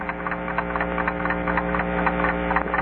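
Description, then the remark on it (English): A steady electrical hum from a home-built preamp drones throughout, with layered buzzing tones and faint crackly rustles on top, fairly loud with no talking. “The preamp is humming.”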